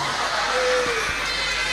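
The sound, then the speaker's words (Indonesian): An audience applauds the women in the audience in a dense, steady wash of clapping that holds an even loudness, with crowd voices mixed in and a brief whistle-like tone sliding through the middle. “saya dapat nilai 95 tepuk tangan untuk ibu-ibu”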